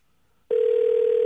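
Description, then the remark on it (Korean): After a short silence, a loud, steady telephone tone switches on as a call is placed to the 5,000th participant to give a prize, holding unbroken to the end, a single continuous electronic hum with no voices. “예, 전화 걸어보겠습니다.”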